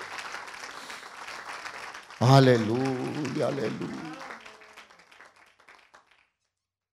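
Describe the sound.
An audience applauds in praise of the Lord in a sustained, dense wash of clapping, joined midway by a loud voice calling out over it before the clapping tapers off and fades.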